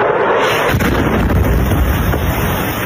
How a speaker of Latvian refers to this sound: Gaisa trauksme šorīt tika izsludināta visā Ukrainā, jo tika saņemtas ziņas, ka Krievija kārtējo reizi izšāvusi desmitiem raķešu. Kīvā un vairākos apgabalos bija dzirdami sprādzieni.